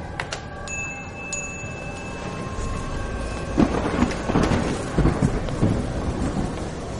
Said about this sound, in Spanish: En cuanto retumbó el primer trueno, lo vi al otro lado de la cristalera con la mano abierta capturando las primeras gotas. Cogí mi chaqueta, pagué la cuenta y salí a la lluvia.